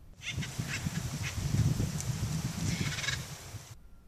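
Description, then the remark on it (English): Raucous, repeated calls from several acorn woodpeckers in harsh chattering bursts, over a steady low outdoor rumble, with no one speaking. “These native birds are easily recognized by their bold clown like markings and noisy calls.”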